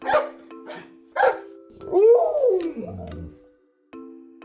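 A dog barks three times in quick, sharp bursts, then lets out a long, drawn-out whining howl that rises and falls, with no talking.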